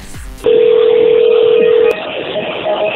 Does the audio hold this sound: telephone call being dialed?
yes